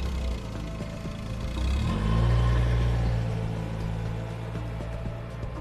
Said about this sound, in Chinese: 苗警官赶忙缩紧脖子，等助手开着警车一过来，就马上钻进了车子。